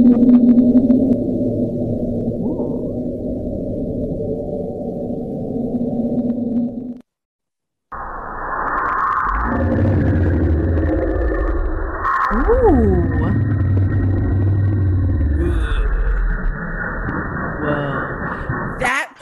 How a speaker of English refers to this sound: So the last one is sounds recorded in the ocean.